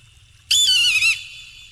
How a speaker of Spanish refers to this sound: Qué águila más no, no es broma. Esa águila parece que la están matando. Es que es un sonido de naturaleza. Sí, pero esa águila da pena.